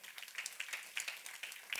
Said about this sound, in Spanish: Den un aplauso al Señor esta mañana.